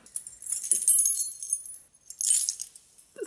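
A bunch of keys with a guardian angel charm jingles in two bursts, a longer shake followed by a short pause and another bright metallic rattle, with no talking.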